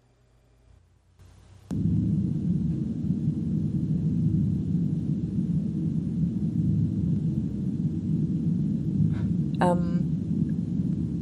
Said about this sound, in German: das klingt so ein bisschen wie Gebärmuttergeräusche. Ja, das hat ungefähr was davon. Es simuliert quasi den, den Sound von der Enterprise, den man im Maschinenraum hört.